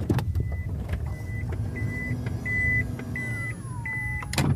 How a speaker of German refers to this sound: Genau, die elektrischen Seitentüren öffnen sich und geben den Raum wohl zum wichtigsten dieses Autos frei, die zweite Sitzreihe.